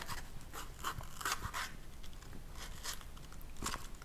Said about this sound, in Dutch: ga paprika versnijden. De randjes eraf.